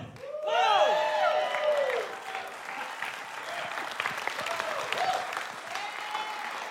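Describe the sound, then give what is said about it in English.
A large church audience claps and cheers loudly to welcome a speaker, with high whoops and shouts rising over the first couple of seconds, then steady, dense applause continuing throughout. “Give him a thunderous welcome.”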